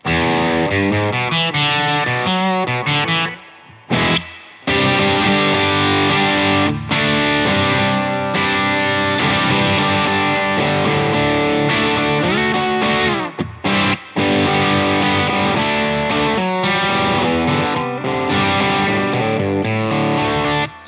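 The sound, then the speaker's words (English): A distorted electric guitar plays through a distortion effect preset called Knife, meant to sound like a Vox amp, a bright, crunchy riff of chords and single notes, sustained and loud with a few brief pauses, with no talking. “Okay, so after Headroom, I have Knife, I call it. And basically, it's supposed to sound like Voxy.”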